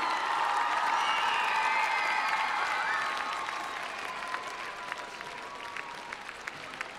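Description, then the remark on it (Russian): An audience at a Christmas concert applauds with dense, steady clapping, joined by a few cheers and whistles early on, then gradually thins and softens toward the end. “Аплодисменты, ребята, не скупитесь.”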